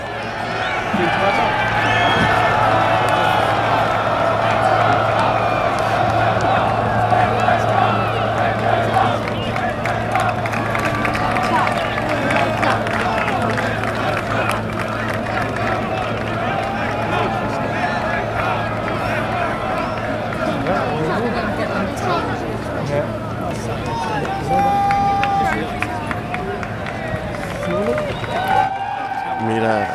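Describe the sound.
A large crowd roars and shouts continuously as champion Cameron lifts his trophy and parades it for the public, a dense wash of cheering voices with scattered claps, holding steady at high volume for the whole stretch before briefly dipping near the end.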